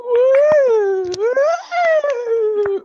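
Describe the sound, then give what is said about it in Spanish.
A loud, drawn-out howling yell held for about three seconds, its pitch rising and falling in slow waves, with a few sharp clicks scattered underneath. “Y ese maldice grito, y ese grito, Dios mío, Dios ¿no?”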